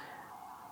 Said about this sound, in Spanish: Eh, ahí va una ambulancia, se va a escuchar mucho ruido de fondo porque este barrio es un barrio muy pesado.